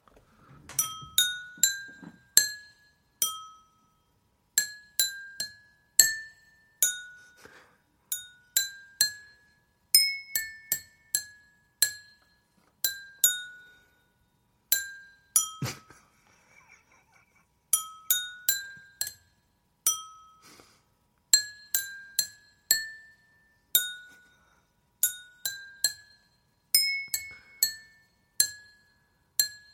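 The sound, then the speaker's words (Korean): Water-filled glasses, tuned to the basic notes of a do-re-mi scale, are tapped to practise a melody, a long run of bright, ringing clinks at varied pitches, each note decaying quickly, with a few short pauses and no talking. “자, 이제 제가 연습해 보도록 제가 도레미 방.”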